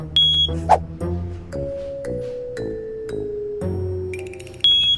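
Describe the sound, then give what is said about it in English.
A high, steady electronic alarm beep from a gas station's underground fuel tank monitor sounds twice, once at the start and again at the end, each lasting about half a second, over soft background music. “With your fuel tanks underground and out of sight, you probably rely on a tank monitor to detect when things go wrong.”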